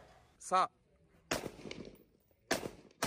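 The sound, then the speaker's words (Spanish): Two loud, sharp gunshots crack out about a second apart, each leaving a short ringing tail, fired at nativity scene figures as target practice at Christmas. A brief high-pitched chirp comes just before them. “Por cierto, hablando del héroe de la ultraderecha mexicana, este celebró la Navidad haciendo su famoso tiro al blanco con las figuras del nacimiento.”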